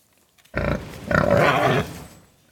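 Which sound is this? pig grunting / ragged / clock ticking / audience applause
pig grunting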